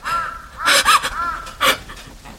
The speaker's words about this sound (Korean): 까악 하는 소리가 바로 그 전나무 삭정가지에 서인 듯 언제나 똑같은 거리에서 울려왔다. 그는 억지로 그 불길스러운 소리를 웃음으로 덮어버리려 하였다.